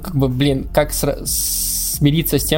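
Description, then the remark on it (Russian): A cat makes a sharp, breathy hissing noise lasting under a second, loud, squeezed between stretches of a person talking. “Скажи, пожалуйста, это твоя кошка? Это моя кошка, к сожалению.”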